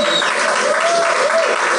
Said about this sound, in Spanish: Muchísimos de ustedes lo conocen, así denle un aplauso.